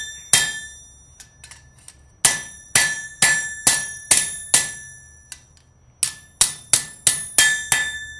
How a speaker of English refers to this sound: Uh, this hammer is for sword making, and it's got a an angle uh-huh. on the hammer head that is just exclusively for putting the bevel on a sword blade.